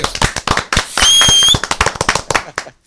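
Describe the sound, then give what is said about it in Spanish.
Loud, sharp claps crack out in a fast, uneven burst of applause for a guest, with a high whistle rising over the clapping for a moment midway before the claps thin out toward the end. “Un aplauso otra vez.”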